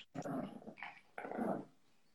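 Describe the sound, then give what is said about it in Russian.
A dog that wants to play, bringing a toy to be thrown, growls in a few short, rumbling bursts, with a brief pause in between and a longer growl at the end, fairly loud. “Играть пришла ко мне собака.”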